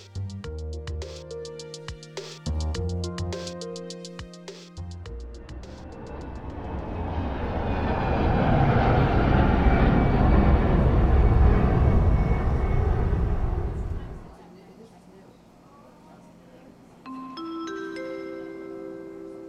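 Airport gate ambience: a few bright tonal chimes, then a loud jet engine roar swells for several seconds and fades, followed by softer rising chime tones. No one speaks.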